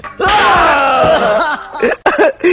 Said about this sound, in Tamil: அப்படியே இருங்க அப்படியே இருங்க ஒரே குத்து